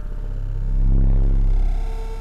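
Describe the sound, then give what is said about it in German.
Electromagnetic hum of power networks recorded through special headphones that make only electric currents, fields and radio networks audible, a dense buzz of low tones with faint higher whines, swelling louder near the middle before easing off, with no voices. “Das Rauschen der Stromnetze lässt sich über die Kopfhörer auch aufzeichnen.”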